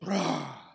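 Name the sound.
voice imitating a thunderclap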